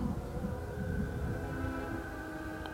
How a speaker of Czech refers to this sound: Počkejte, ten vlak zastavil?